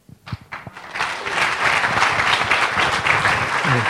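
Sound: audience applauding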